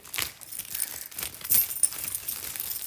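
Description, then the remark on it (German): Keys jangle and clink for a few seconds, bright metallic rattles coming in small bursts as they are handed over, with no voices. “Gib mal den Schlüssel.”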